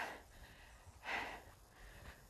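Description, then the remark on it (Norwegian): Heavy, rhythmic breathing from someone running: a few forceful, breathy exhales and gasps, the strongest in the middle, with no talking. “Her begynner jeg å puste godt, i hvert fall.”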